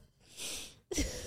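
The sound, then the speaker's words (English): A single sneeze: a breathy intake, a brief pause, then a sudden sharp burst of air that trails off into a short hiss. No talking accompanies it. “Ooh, bless, bless you. you.”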